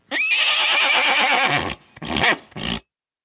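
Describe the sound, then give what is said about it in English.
A person imitates a horse's neigh, loud: one long, quavering whinny followed by two shorter, breathy bursts, with no other talk. “I have a horse Lanta soundboard and it consists of this. Horse noise.”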